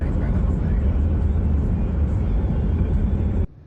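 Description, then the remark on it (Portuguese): Loud, steady roar of vehicles speeding along a highway as a hearse makes an illegal overtaking manoeuvre at high speed, followed by a truck and a pickup doing the same; a continuous rumble of engines and tire noise that cuts off abruptly near the end. “Aqui, um carro de funerária faz uma ultrapassagem proibida em alta velocidade.”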